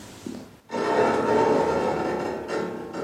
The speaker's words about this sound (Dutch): Ik hoorde gekraak.